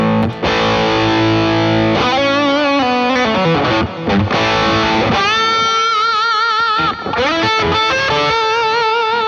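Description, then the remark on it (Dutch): An electric guitar plays a solo through a Crunchbox distortion pedal: loud, sustained, crunchy lead notes with bends and vibrato, broken by quick runs. It plays continuously for about nine seconds with no one speaking. “eh Dat is eigenlijk mijn crunchbox.”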